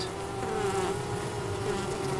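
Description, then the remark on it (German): A dense, steady buzz of a colony of around 10,000 honeybees swarming around a hive on a small meadow near Seeheim-Jugenheim, a continuous droning hum with a strong low pitch, fairly loud, with no voices. “Dieses Volk hier hat den Winter gut überstanden. Es steht auf einer kleinen Wiese in der Nähe von Seeheim-Jugenheim.”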